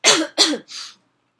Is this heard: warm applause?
no